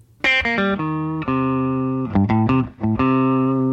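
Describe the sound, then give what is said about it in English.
A short electric guitar riff played with a finger-pull technique, the fleshy part of the index finger pulling one side of the string and the pick on the other: a few quick, bright, slightly gritty notes, then longer sustained ones ringing out with rich overtones. No one speaks. “that I could come up with was doing a sort of finger pull on the note with the fleshy part of my index finger on one side of the string and the pick on the other.”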